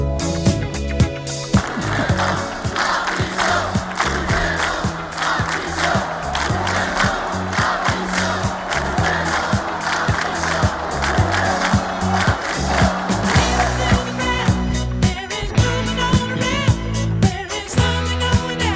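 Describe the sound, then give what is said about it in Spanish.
A large right-wing protest crowd chants the slogan "Puigdemont a prisión" in unison, a loud, rhythmic roar of many voices with repeated shouted beats that carries on steadily for the whole stretch. “Puigdemont a prisión. Gritan”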